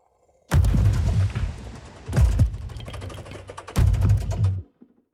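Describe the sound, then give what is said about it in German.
A processed sample of a washing machine recording, made as the core of the rhythms for a piece of music: three heavy, booming bursts of rumbling, clattering noise, each swelling loud and then cutting off, with brief gaps between them. No one speaks. “Bearbeitete Version der Waschmaschine.”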